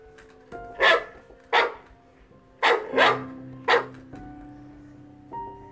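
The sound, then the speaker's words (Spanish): A dog barks five times in the streets of Tesalia, in loud, sharp bursts at an uneven pace, with a soft sustained musical drone underneath and a fainter bark near the end. “Ofelio iba por las calles de Tesalia, borracho, cuando se le atravesó un perro”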